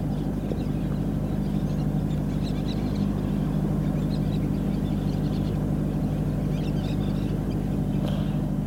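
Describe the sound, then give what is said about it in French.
Scattered bird calls and chirps rise faintly over a steady low rumble and constant background drone: birds in the forest beside the Amazon River, heard in the morning from the boat Tara moored at a military port. “On voit la forêt. On entend les oiseaux.”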